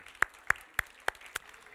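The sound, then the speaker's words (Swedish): A church audience applauds their neighbours, coming through as five sharp, evenly spaced claps in a steady rhythm, fairly soft overall, with no talking. “Ska du ge din granne en applåd?”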